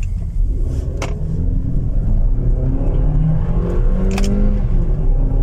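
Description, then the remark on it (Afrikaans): A Suzuki Grand Vitara engine accelerates hard, its drone rising in pitch through second and third gear. Brief dips mark the gear changes, with a steady low rumble running underneath throughout. “En dit voel die oomblik wat jy in derde ingaan, verloor hy bietjie stoom. Trek hy nie meer so hard nie.”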